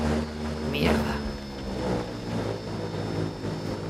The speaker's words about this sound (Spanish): ¿Mierda qué? Dios santo, es la élite. ¿La hélice? Vamos a morir. Lo sabía, lo sabía. Vamos a morir. En mitad del Atlántico.